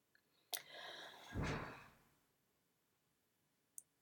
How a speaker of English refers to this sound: and my neighbor just slammed a door, sorry.